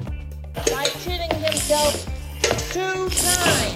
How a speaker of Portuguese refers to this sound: Vamos ouvir assim alguns sons peculiares que foram do ET.